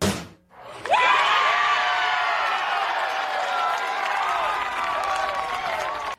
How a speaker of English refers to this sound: With a hearty cheer, the IU women's basketball team reacts to the Hoosiers' number one seed in the NCAA tournament.